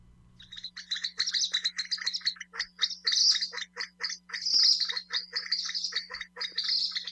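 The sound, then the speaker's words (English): Calls of a Kalij pheasant, a game bird: a rapid, steady stream of sharp chirping and chattering notes that goes on without pause, clear over a faint low hum, with no talking. “Kalij pheasants are native to the mountains of southern Asia and were introduced to the Pu'uwa'awa'a area on the island of Hawaii in 1962.”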